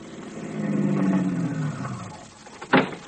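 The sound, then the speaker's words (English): A car engine hums and winds down as the vehicle slows to a halt in the street where a woman stands, followed by a short burst of noise near the end, like brakes or the car settling. “Stop the car, Vitamin.”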